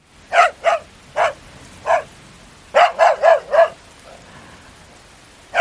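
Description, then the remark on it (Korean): The household dog, Wol-i, barks fiercely in a loose series of sharp, loud barks, a few spaced apart, then a rapid burst of four, followed by a fainter bark and one more at the end. “우리 집지청꾸러기 월이란 놈이 전혀 없이 사납고 우람찬 소리로 지저대기 시작했다.”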